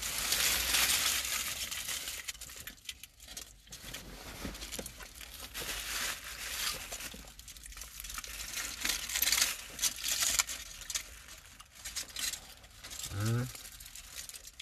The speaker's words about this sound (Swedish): enda man kommer höra i inspelningen är folieprassel.